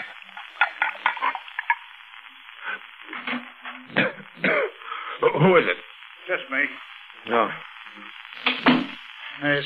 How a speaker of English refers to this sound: starting to rain. Radio says we'll have three days of rain, maybe more.